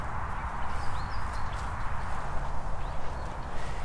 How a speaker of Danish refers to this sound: Det er en sjov blanding med motorvej. Ja, ikke også? Motorvej og hest, Det, det hører ikke rigtig sammen.